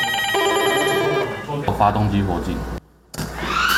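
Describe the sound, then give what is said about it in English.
A telephone rings loudly with a bright, sustained tone for about a second and a half as an emergency drill call comes in to the fire department at Songshan Air Force Base. It is followed by clattering activity, a brief silent gap, then more busy noise. “a call comes in to the fire department at Songshan Air Force Base.”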